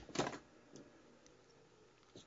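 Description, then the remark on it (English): A mobile phone buzzes with a short, rattly vibration burst, followed by a couple of fainter buzzes spaced over the next two seconds. The sound is quiet, with no talking. “Your phone is going crazy.”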